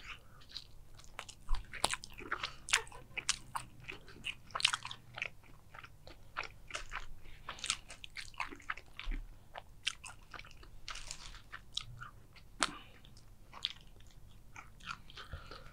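Close-miked ASMR chewing and crunching of a burger with egg and double meat, a dense run of sharp crisp bites and wet munching clicks repeating irregularly for the whole stretch, with no talking over it.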